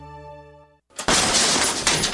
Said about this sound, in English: That's the sound of your door being kicked in by an intruder with a single kick.